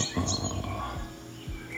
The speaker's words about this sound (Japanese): 昼は、えっと、どこかの森の鳥の鳴き声ですねこれも森の風景が